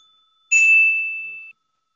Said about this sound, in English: Ring the bell. Ring the bell. I'll ring the bell.